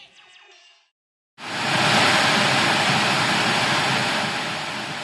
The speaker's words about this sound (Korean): 예상대로 흑백 화면이 지지직거리는 소음과 함께 나타났다.